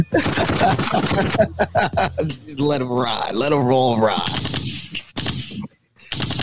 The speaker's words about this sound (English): Gunshots from everybody.